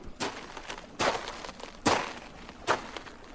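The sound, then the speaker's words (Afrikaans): Four heavy hippo footsteps crunch on dry, dusty ground in a slow, steady rhythm, fairly soft, the dust blowing as she steps, with no talking. “Die grond is droog en die stof waai soos wat sy trap.”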